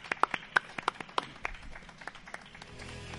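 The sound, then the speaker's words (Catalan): A brief burst of thank-you applause from an audience: about a dozen sharp, separate claps in an uneven rhythm, strongest at the start, then thinning out and fading over a low background hum. “Un gràcies aplaudiment.”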